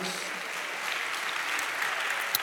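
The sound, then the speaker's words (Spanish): A church audience applauds God during a sermon, a dense, steady wash of many hands clapping at once that holds at an even, moderately loud level with a few sharper claps standing out. “¿Cuántos dan un aplauso a Dios por eso, amado hermano?”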